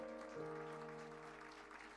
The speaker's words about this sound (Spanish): Amén, amén y amén. Den un aplauso de alabanza al Señor.